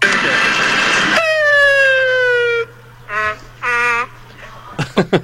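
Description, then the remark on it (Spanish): A man vocally imitates a dog and a patrol siren: a long, falling siren wail, then a few short, dog-like barks and yelps, loud, ending with quick clipped bursts. “ahí de la gasolinera de la Minerva, que la hace como perro y como patrulla.”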